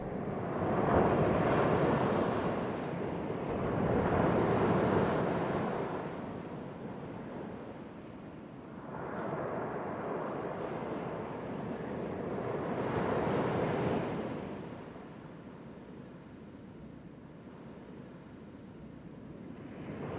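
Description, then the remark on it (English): Gentle sea waves wash onto the shore in slow, rolling surges, each swell rising and fading away, with a soft breath of wind underneath and no voices. “I take a moment to listen to the gentle push and pull of the sea”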